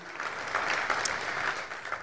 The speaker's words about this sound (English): And if you received the word of the Lord today, would you give the Lord a great hand clap of praise? Would you do that? Amen. Right now? Amen.